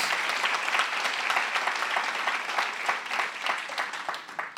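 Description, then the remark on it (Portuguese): Sustained applause for Jesus from a crowd, a dense, steady wash of many hands clapping at a fairly loud level, tapering slightly toward the end. “Como filho, se você vai aplaudir, aplaude mesmo Jesus, como filho de Deus.”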